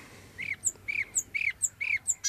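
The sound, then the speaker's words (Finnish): Marsh warbler song: a steady, repeating phrase alternating a harsh, buzzy note with a higher, thin chirp, about four cycles in quick rhythm, with no voices. “Kyllä tämä on luhtakerttunen.”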